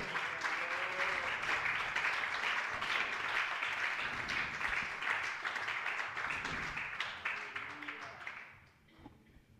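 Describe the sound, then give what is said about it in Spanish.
An audience breaks into sustained applause, dense clapping from many hands at an even level for about eight seconds before thinning out and fading away at the end. “Usted verá si quiere aplaudirlo, si quiere alabarlo.”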